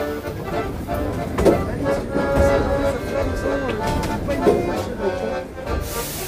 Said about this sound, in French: Ici Paris, le métro, un accordéon.